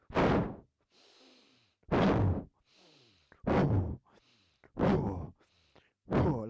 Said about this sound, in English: But you're going to be basically breathing in. You'll be standing up at this point. You're going to breathe in like you imagine you're taking an energy ball and you're sucking it into your belly.